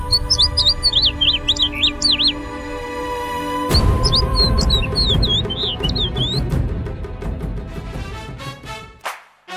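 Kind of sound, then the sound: bird, birds chirping and singing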